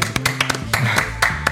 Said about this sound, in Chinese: 这时候应该有一个那个掌声什么的摁一下。